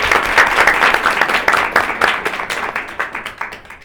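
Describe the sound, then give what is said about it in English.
An audience breaks into applause: a dense, crackling wash of many hands clapping at once, steady and loud at first, then thinning into scattered claps as it fades out. “I just applaud you.”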